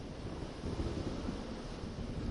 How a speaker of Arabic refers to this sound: الموج ليس بالعلو الذي رايته اول مره المطر بالحقيقه رذاذ